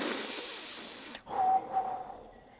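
A single deep breath, prompted by a smartwatch breathing reminder: a long, airy inhale, a brief pause, then a slow exhale with a faint whistling wheeze. No one speaks.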